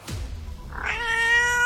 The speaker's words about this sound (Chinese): 一声猫叫忽然从洗手间传了出来，这声突如其来的猫叫吓得唐旭东一下子瘫软在了地上。